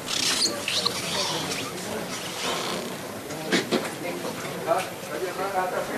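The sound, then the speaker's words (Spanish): Support legs of a procession float being retracted, heard as a few brief knocks and scraping clatters over a steady murmur of crowd noise and chatter. “Sonido de zancos.”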